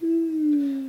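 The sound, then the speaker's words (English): A phone notification chime: a single steady electronic tone, about a second long, that sags slightly in pitch as it holds. It is clear, with no talking over it. “I don't know what the hell I did on my settings, but even though my volume is all the way, I'm just gonna turn airplane mode on.”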